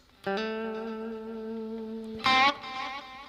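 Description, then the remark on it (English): An electric guitar holds one long, steady note, then strikes a brighter, louder note that rings out with a light reverb and delay tail. It plays alone, with no voices. “But if I give this, it gives it just a little bit of ambience.”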